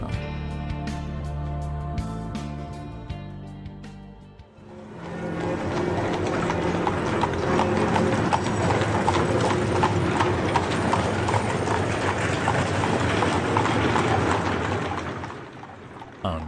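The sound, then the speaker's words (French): A few seconds of music give way to loud, dense clip-clopping of many horses' hooves as soldiers from the Part-Dieu barracks pass along the Grande rue des Charpennes in Villeurbanne, France, in the morning, a steady rumbling clatter that carries on throughout with no one speaking. “une époque où l'on croisait des chevaux plein les rues de Villeurbanne”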